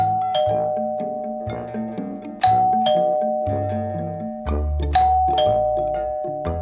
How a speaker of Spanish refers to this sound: Repentinamente el timbre de casa empieza a sonar insistentemente.